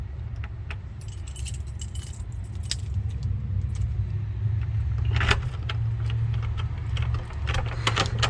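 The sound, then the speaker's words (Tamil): Keys jangle and scrape in the door lock of a roughly 400-year-old building, a lock that sometimes does not open properly, with irregular metallic clicks and rattles, some sharper bursts midway, over a steady low rumbling hum. No one speaks. “இதில் சம்டைம்ஸ் இந்த லாக் வேறு சரியாக ஓப்பன் ஆகாது”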